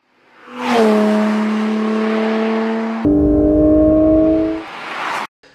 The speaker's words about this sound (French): eh bien nous avons toujours un 6 cylindres à plat naturellement aspiré de 4 litres, avec une zone rouge à 9000 tours minute, une sonorité toujours aussi viscérale